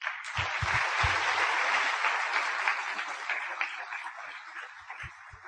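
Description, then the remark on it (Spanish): Sustained applause from an audience in Medellín applauding themselves, a dense crackle of many hands clapping steadily for several seconds, with a few low thumps early on, then gradually thinning toward the end. “Yo sé que esto es una tierra de líderes y de diamantes, así que por favor regálense un aplauso.”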